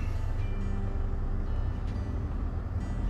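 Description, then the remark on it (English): A heavy, steady low rumble of a FedEx semi truck on the road in Four Corners, Montana, with a droning engine tone and a couple of brief faint whooshes, no voices. “That semi was a FedEx truck.”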